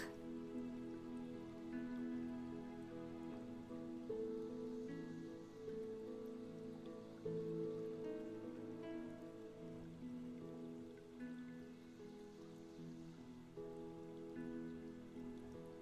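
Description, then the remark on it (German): A steady babbling of brook water flows without pause, its gentle splashing blended with soft, sustained musical tones that hum underneath throughout. “Wie von selbst vertieft sich deine Atmung lässt dich immer gelassener hier auf deinem Platz verweilen am plätschernden Bach.”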